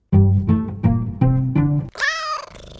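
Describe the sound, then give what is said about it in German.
A short, sharp sneeze bursts out near the end, fairly loud, right after a run of five steady, low, buzzing pulses like rhythmic breathing or purring. “Gesundheit.”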